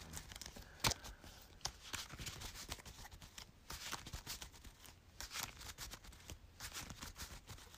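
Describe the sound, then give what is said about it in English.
Playing cards being shuffled, a discard pile shuffled back into the deck during a card game with the Paranoia card left out; a steady run of crisp riffling clicks and papery flicks that continues for several seconds without any talking. “I'm going to leave the Paranoia out and shuffle everything back.”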